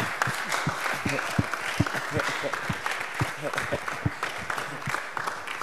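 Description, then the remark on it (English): Several people clap continuously, sharp claps overlapping in a loose, uneven rhythm at a steady moderate loudness, with a murmur of voices underneath. “Almost, Mama Pastor, you are not clapping for the man of God.”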